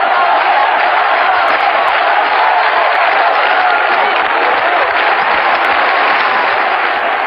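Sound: crowd chanting a name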